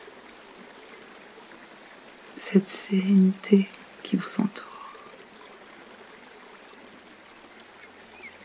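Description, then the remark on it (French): A river flows steadily in a constant, soft rushing wash that runs unbroken from start to finish, while a quiet voice speaks briefly over it partway through. “remarquez la rivière qui continue de s'écouler inlassablement. Entendez son bruit constant et apaisant.”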